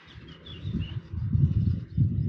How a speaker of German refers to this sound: Man sieht keine Vögel hier. Man hört welche. Man sieht sie nicht fliegen.